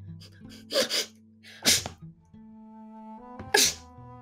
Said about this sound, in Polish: kicha raz i drugi.